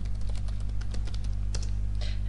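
Rapid, irregular clicking of keys on a computer keyboard, steady, over a constant low electrical hum with no voices.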